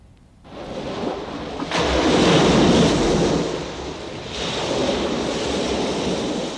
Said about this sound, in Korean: 오늘 찾아주실 보물소리는 어떤 소리일까요? 한번 들어볼까요? 야, 시원한, 시원한 파도 소리, 이 소리입니다.